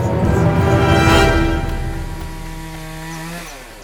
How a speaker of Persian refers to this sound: صدای اره برقی کی با اره برقی اومده تو جنگل نباید بذاریم درختامون اونو قطع کنه